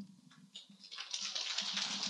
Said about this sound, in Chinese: 其他的共修组都不鼓掌，拉斯维加斯就鼓掌。